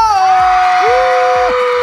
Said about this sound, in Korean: 오늘 함성이 기네요.